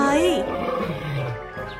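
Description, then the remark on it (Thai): A tiger roars at three hunters walking into the forest, a single loud roar that rumbles with a low growl and holds steady for nearly two seconds before easing off. “พอดีระหว่างทางได้ไปพบกับนายพานสามคนที่กำลังเดินเข้าป่ามาเสือเนรมิตก็ได้คำรามใส่นายพรานทั้งสามคน”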